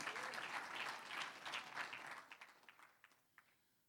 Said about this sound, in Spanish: Un aplauso al Señor.